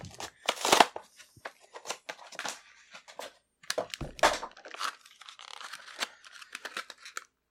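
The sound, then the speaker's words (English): Sealed Zelda amiibo toy packaging being torn open: a run of sharp, irregular ripping and crinkling bursts of plastic and cardboard, with a few brief thuds and rustles between them. “I haven't used it to like um to do anything because I want to open on sealed. the show”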